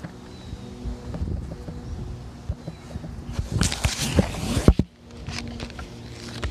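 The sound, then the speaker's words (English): Gusty wind buffets the microphone outdoors, a steady low rumble swelling into loud, roaring blasts midway before briefly dropping off and picking up again. “I normally don't anticipate it being this windy.”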